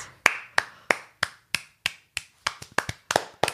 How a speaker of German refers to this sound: Hey, du sollst nicht für dich selber klatschen. Hey, das soll aber so, so aber fett klingen. reicht dir mein Einzelklatschen etwa nicht? Nein. Hätt, oder hätte ich Slow Clap machen sollen?